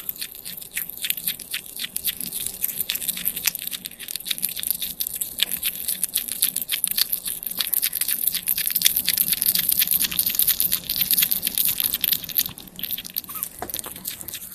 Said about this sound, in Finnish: Eli mussuttava siili oli tämän kerran ensimmäinen.